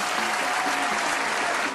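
Steady, dense applause from many hands clapping together, loud and sustained without pause through the whole moment, with no voices standing out.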